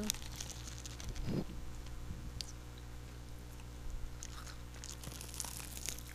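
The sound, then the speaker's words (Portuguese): Someone bites into a crunchy snack, producing a few crisp crackling crunches spread over several seconds, fairly quiet against a low background hum. “Será que eles vão ouvir se eu morder aqui assim, ó? Acho que dá pra ouvir.”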